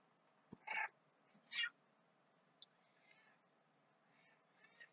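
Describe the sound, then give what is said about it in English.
A female cat meows twice in quick succession, loud, its short calls rising and bright, followed by a brief click and a few faint, softer chirps. “Shitty Kitty has arrived. Here, girl.”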